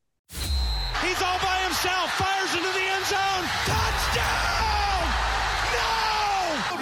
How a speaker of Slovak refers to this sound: Dobre, dáme si jednu prestávku na jingle a ideme na What's More Likely.